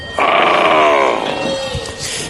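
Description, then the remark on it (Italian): A loud, drawn-out tiger roar that starts abruptly, then slides downward in pitch and trails off into a rough, fading growl, heard on its own. “Senti il tigre!”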